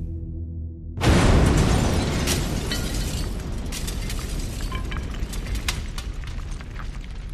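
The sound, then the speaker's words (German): A sudden, loud, dull bomb explosion in a waste bin at 22:19 bursts in after a second of low hum, followed by a long rumbling roar with scattered crackles and debris rattling for several seconds. “Und nur noch dieses Tor liegt zwischen uns und dem Papierkorb, in dem genau in diesem Moment um 22.19 Uhr die Bombe hochgeht. Ich höre nur einen lauten, dumpfen Knall.”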